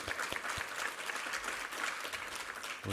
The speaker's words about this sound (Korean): 할렐루야 우리 하나님께 감사와 영광의 박수 올려드리겠습니다